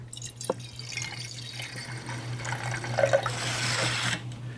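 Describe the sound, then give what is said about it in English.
An old wine, decanted to remove sediment, pours into glasses, a steady trickling splash that swells louder in the second half before stopping abruptly, over a faint constant low hum. “And we're just going to pour here.”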